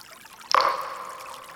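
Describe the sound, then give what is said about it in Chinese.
A single water droplet plops into a clean, clear, cool river with a sharp splash, followed by a bright, ringing tone that slowly fades over about a second. No one speaks. “它掉进了一条好干净、好清澈、好清凉的河流里哦。”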